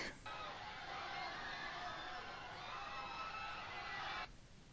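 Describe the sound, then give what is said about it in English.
A sound effect of a crowd panicking on a sinking ship: a dense, loud wall of many voices screaming and shouting in panic, sustained for several seconds before cutting off abruptly, with no single voice standing out. “Here's the crowd panic.”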